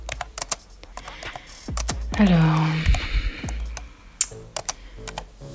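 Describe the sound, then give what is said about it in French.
Rapid, irregular clicks of typing a Google search on a computer keyboard, fairly crisp, continuing throughout with a brief spoken word partway through. “Je prends ma lâcheté à deux mains et puis je me mets à pianoter sur le clavier.”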